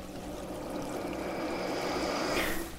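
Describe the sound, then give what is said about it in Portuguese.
Steady rushing water of a waterfall pours without pause, a dense, even wash, with a brighter splashing hiss rising near the end. No voices. “Se lava suas mãos, fica um pouquinho mais aí debaixo dessa cachoeira.”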